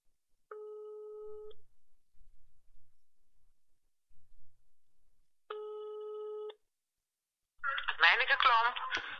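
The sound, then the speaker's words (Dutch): As a call is placed, two steady, buzzing telephone ring tones sound, each lasting about a second with a long silent gap between them, then a voice begins talking as the call is answered. “Dus ik ga even iemand bellen.”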